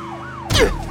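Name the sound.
police car sirens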